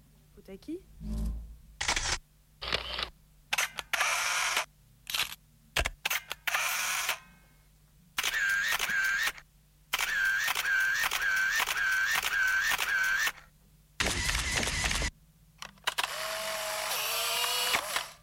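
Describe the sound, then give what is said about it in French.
Loud photo booth camera shutter clicks and mechanical whirring bursts arrive in quick irregular succession, with a run of short electronic beeps partway through. “La photomaton.”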